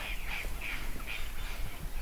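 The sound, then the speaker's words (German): Several crows caw in a forest in a quick, uneven series, fairly faint over a steady low outdoor rumble, with no one speaking. “Aber drüben im Wald sind die Krähen ganz schön am Schreien.”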